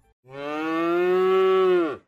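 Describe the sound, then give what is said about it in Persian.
A fat, large cow living on a farm gives a single long, loud moo, rising steadily and holding for nearly two seconds before dropping off at the end, heard clearly on its own. “خانم گاوه گاو چاق و بزرگی بود اون تو مزرعه علی آقا زندگی میکرد خوشحال و راحت بود”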